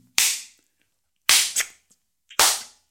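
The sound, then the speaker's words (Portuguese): Someone imitates the loud slapping sounds of neighbours having sex: three sharp, crisp smacks spaced about a second apart, the second followed quickly by a smaller echoing smack, with silence between and no talking. “Pá, estamos a falar de chapadas.”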